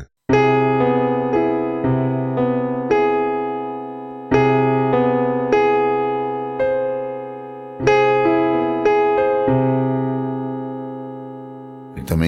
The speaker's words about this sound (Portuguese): E o aumentado com sétima maior? Olha aí, vamos fazer uma, um voice interessante aqui.